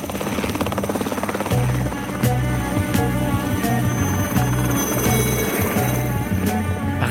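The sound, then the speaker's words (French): A helicopter flying, its steady rotor thump and engine drone holding loud and constant throughout, with a low pulsing hum and a brief shift in tone partway through. “Oh, pétard, un hélicoptère.”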